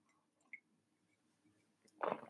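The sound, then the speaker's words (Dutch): A brief wet slurp as someone sips a drink, a short moist gulp at the end of an otherwise quiet stretch, preceded by a faint small click. “Ik moet gewoon elke minuut een slok nemen om niet helemaal uitgedroogde keel te hebben.”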